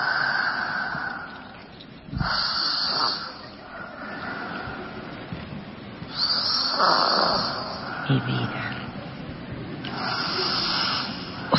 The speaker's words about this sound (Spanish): una niña de cuatro años no tiene por qué roncar. No, y si nos damos cuenta va incrementando la intensidad y los espacios entre la frecuencia respiratoria, los espacios entre cada ronquido.